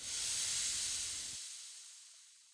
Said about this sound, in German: Langsam schlurfte er zur Tür und drückte die Klinke herunter. Ein kühler Luftzug strömte in das Haus.